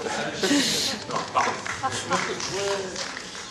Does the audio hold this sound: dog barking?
yes